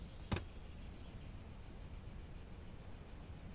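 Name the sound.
cicadas chirping outdoors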